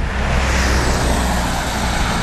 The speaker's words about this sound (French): Depuis 24 ans, son jardin donne directement sur la départementale, alors forcément, il entend passer les voitures.